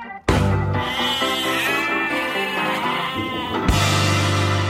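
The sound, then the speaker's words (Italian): A goat bleats loudly in one long, wavering, quavering cry that runs for several seconds, briefly breaking before carrying on, with no talking. “Perché la capra eh, è il migliore animale che c'è dopo la donna.”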